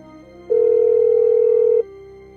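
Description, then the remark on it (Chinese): A telephone tone after a call is hung up: one steady, mid-pitched electronic beep held for just over a second, loud and even, over a faint low background hum, with no voices. “挂断了电话，华天云也准备出门，”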